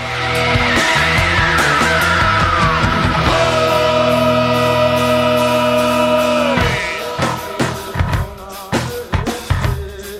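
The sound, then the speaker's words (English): A shrill, sustained screeching vocal glides downward in pitch over loud, dense rock instrumentation, then the music breaks into choppy, punchy bursts near the end. “haunting how he can screech like that in a way because it's not just like a growl and like a kind of hardcore. Rah! It's yeah. actually like a full high pitched screech.”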